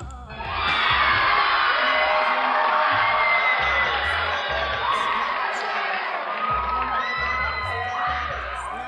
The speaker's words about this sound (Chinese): 哎，这尖叫是不是太恐怖了？就第一次用特效啊。